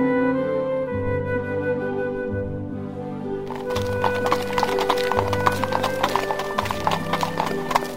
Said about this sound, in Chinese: 马修驾着马车离开了火车站，往回到绿屋的路上行驶着。